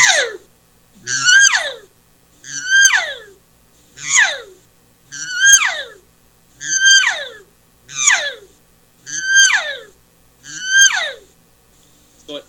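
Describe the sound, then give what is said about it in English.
A human voice imitates a growly animal call that pushes into a high, excited tone, repeated about nine times in a steady rhythm, loud, with no talking. “I'll, I'll do some just growly calls like that, but then I'll, as I'm doing the growl, I push it into that higher tone and stop humming with my vocal cords like this.”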